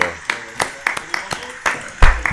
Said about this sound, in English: Round of applause oh, again yeah. one time.